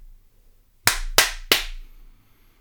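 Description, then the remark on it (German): A start signal for a run, made of three sharp, loud cracks in quick succession, like a cap gun or hard claps, each with a short ringing tail, with no voices. “Solltest du deinen Lauf tracken wollen mit einer Uhr oder ähnlichem, dann haben wir ein Start- und Endsignal eingebaut.”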